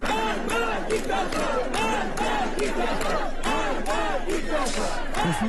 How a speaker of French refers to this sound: Seulement voilà, depuis, des centaines d'Iraniens manifestent, eux aussi, devant les caméras du monde entier pour dire leur immense fatigue et crier leur colère avec un mot d'ordre. Abat la dictature.